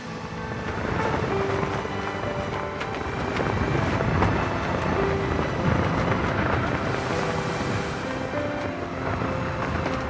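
Steady spring wind and rushing sea water as a sailing ship glides over the waves, a dense continuous wash of surf-like noise with faint tonal hums underneath, holding at an even level throughout without any talking.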